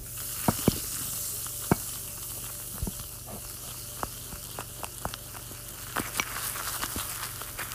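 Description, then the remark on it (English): A soft fizzing, bubbling mixture crackles steadily while a plastic knife stirs it, scattering small clicks and scrapes at irregular moments. Fairly quiet, with no talking. “sort of starting to bubble up, so I think that means I have to mix it.”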